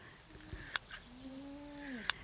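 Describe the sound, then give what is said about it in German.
Scissor snips, two quick crisp cuts followed by a third after a pause, as the long hairs left standing on the head of a recently sheared llama or alpaca are trimmed. A soft, low, sliding tone drifts underneath in the quiet background. “ihn noch am Kopf die langen Haare abschneiden, die so ein bisschen stehen geblieben sind”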